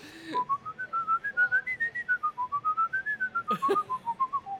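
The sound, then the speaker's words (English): A person whistles a flowing Bach melody, clear and steady, the tune rising and falling smoothly in a continuous line of notes with no talking over it. “Are you a good whistler? I'm a, I'm a very good whistler.”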